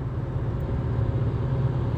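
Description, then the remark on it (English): A steady, enclosed low rumble of road and engine noise fills the space, like riding inside a moving car, with an even, unbroken drone and no voices. “you just like to sit and talk to yourself alone in your car.”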